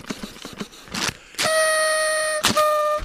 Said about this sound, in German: Ah. ah. Meiner geht nicht. Da musst du doppelt. Ich habe zwei Luftrüssel mitgebracht, um die angespannte Grundsituation im Land etwas aufzulockern.